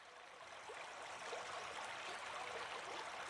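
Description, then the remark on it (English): Steady rush of river water running over stones, a continuous bubbling wash with small gurgles, moderately quiet and unbroken, no voices. “The water doth flow, and it doth ever change, and the stones underneath constantly rearrange, so that all water is, and yet all water was.”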